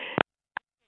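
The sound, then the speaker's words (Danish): A mobile phone beeps in short electronic bursts, one right after a brief rush of noise and another a moment later, with a faint tone trailing off in near silence. “Jamen, det, det er min telefon, fordi jeg, jeg tog den herinde, hvor jeg kunne sidde op, og jeg ringede ind fra soveværelset.”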